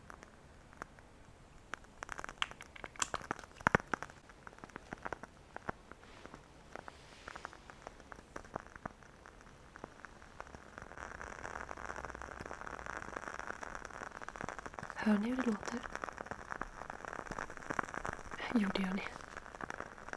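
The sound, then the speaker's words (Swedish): Soft, irregular crackling and faint pops from a candle just lit with a lighter, like a small fireplace, with a sharper snap early on and brief murmurs of a voice near the end. “Det är ju meningen att det här ska låta som en brasa.”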